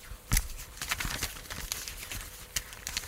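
The paper of a script crinkling, a run of irregular crackles and rustles with a few sharper snaps standing out, fairly quiet and with no voices over it.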